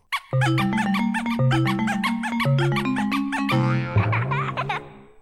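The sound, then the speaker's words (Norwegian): A playful alternate Nintendo game console startup jingle, played by holding the Z button on the player 1 controller: a quick run of bright synthesized notes stepping up and down, closing with squeaky, baby-like giggles that trail off. No one speaks. “Du kan spille den første når du holder inne den Z-knappen på player 1-kontrollen.”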